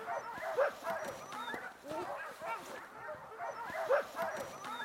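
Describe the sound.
A chorus of sled dogs barks and whimpers continuously, overlapping yips and whines, with faint human speech mixed underneath the steady, excited noise, as the dogs are being harnessed before setting off.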